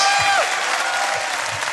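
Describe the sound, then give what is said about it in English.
A crowd applauds loudly and steadily, the dense clatter of many hands filling the whole stretch, with a brief whoop or cheer rising near the start, as the audience gives a round of applause to guest Jim Moir, Vic Reeves. “Ladies and gentlemen, will you give a massive round of applause to Jim Moir, Vic Reeves?”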